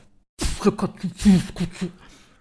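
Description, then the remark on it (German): A single voice beatboxes a short run of punchy vocal percussion syllables based on the patterns "böse Katze" and "Pisskotze", about six clipped hits in quick rhythm, with no other sounds around it. “Ja, aber ich, passen Sie auf, ich mache einmal böse Katze und ja. einmal Pisskotze.”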